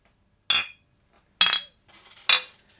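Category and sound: household object, drinks clinking together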